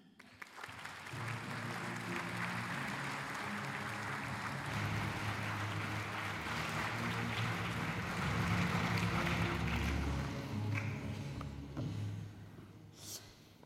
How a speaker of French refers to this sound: Je vous demande d'accueillir sous vos applaudissements